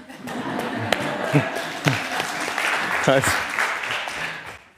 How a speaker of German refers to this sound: Großen Applaus fürs Team.